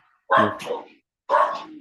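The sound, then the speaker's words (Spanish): A neighbor's dogs bark in two loud bursts separated by a short pause, each bark rough and drawn out, with no talking over them. “chao de ahí a los perros del vecino.”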